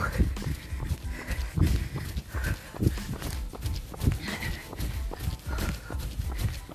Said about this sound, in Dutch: Lekker rennen. Kijk om je heen. Adem. En tijdens het ademen en het rennen, dan hoor je dat je voeten een ritme maken. En je adem ook.